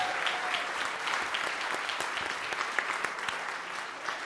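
Steady applause from a live show audience for the show's producers, a dense wash of many hands clapping at once, sustained and fairly loud throughout with no voices rising above it.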